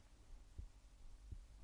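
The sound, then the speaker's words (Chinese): A slow heartbeat: two soft, muffled low thumps roughly three-quarters of a second apart, over a faint steady hum with no talking. “嗯，在找我的心跳声吗？”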